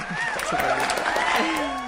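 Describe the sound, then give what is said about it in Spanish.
A short burst of applause, a few people clapping steadily, with voices cheering and laughing over the claps throughout. “Aplausos”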